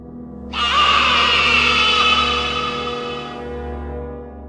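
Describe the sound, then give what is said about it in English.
A long, loud screaming goat bleat, harsh and strained, holding for about three seconds before cutting off, over a low, steady droning hum that continues underneath. “Screaming goat sound, but longer with a little bit of sinister behind it.”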